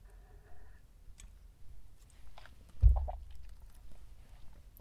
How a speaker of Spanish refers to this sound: Pausa para trago de café.